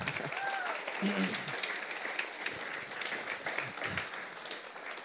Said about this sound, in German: Und vielleicht können wir an der Stelle auch echt mal den ganzen Dienstteams hier einen riesen Applaus geben, damit das hier immer so läuft, oder? Jawohl.